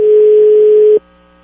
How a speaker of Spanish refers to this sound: Fíjate cómo hasta se detuvo el timbrido del teléfono. Oye, no contesta la chava esta,